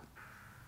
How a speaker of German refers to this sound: es ist lustig, man hört im Hintergrund die Krähen in einem Berliner Hinterhof. Aber sie sollen ruhig weiter krähen, diese Krähen.